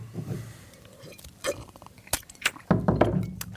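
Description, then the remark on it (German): Glasses clink a few times at irregular moments, light bright taps mixed with soft handling thumps and shuffling, as people pause to take a sip of water. No one speaks. “Wir trinken kurz einen Schluck.”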